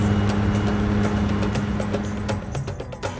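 An Adventist aviation small plane taxis to the runway in Papua New Guinea with a steady, low droning engine hum, overlaid by scattered rattles and clicks. The loudness holds fairly even throughout, with no one talking.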